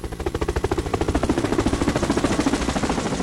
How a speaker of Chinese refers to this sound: 我去，还真有家长开直升飞机来学校啊！